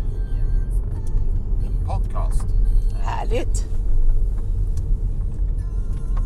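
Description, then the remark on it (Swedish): A steady low engine rumble fills the cabin of a moving car carrying passengers out to Skäris, constant throughout, with a few brief spoken words over it. “möjligheten att sitta i Katrins bil här”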